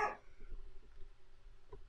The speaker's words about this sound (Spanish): Y vuelve a ladrar mi perro, güey.